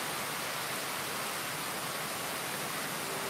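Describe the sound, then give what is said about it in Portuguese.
Steady, dense hiss of real rain falling continuously, a broad even wash of sound with no clear individual drops, moderately quiet and with no voices present. “Vai curtindo o som da chuva, é, o, que é verdadeiro aqui, tá? Chuva mesmo aqui.”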